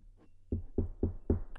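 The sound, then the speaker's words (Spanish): Four firm knocks on a door in a steady, even rhythm, fairly loud, each a dull wooden thud, with no voices in between. “Vamos a pegar a la puerta, a ver.”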